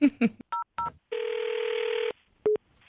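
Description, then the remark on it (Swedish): Phone tones as a call is placed to the insurance company Länsförsäkringen Stockholm: a couple of short dial-pad beeps with two-pitch chords, then a long steady ringback tone, followed by a sharp click and another brief tone burst. “Och din uppgift är att du ska ringa dit och försöka försäkra en båt som det redan har gått åt pipan med.”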